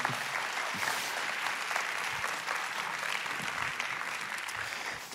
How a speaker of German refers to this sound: Komm, wir geben unserem Theaterteam nochmal einen großen Applaus. Dankeschön.